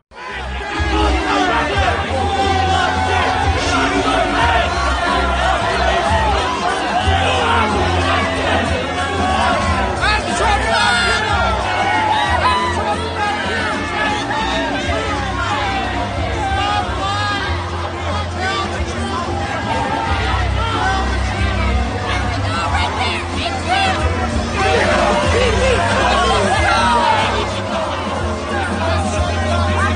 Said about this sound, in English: This is 45 seconds of grown adults heckling, flipping him off, being uh, grotesque, vile, disrespectful, and uh, very Trump like.